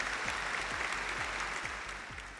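Sustained hand clapping forms a dense, steady wash of claps, with a soft low thump recurring about twice a second underneath. It holds at an even, fairly loud level with no voices.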